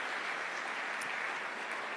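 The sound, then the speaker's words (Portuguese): Steady applause from a crowd given to Jesus fills the space, a dense wash of many hands clapping at once, sustained and even throughout with no voices breaking through. “Uma salva de palmas a Jesus mais uma vez.”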